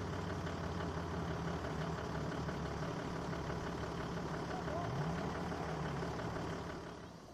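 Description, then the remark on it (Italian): A heavy off-road vehicle engine rumbles steadily on sand dunes, its pitch climbing briefly as it revs partway through, before the noise eases off at the very end, as the vehicle takes a run-up to climb large dunes. “Quando poi si trovano grandi dune e la potenza del motore non basta più, bisogna sfruttare la rincorsa andandosi a cercare lo spazio necessario a prenderla.”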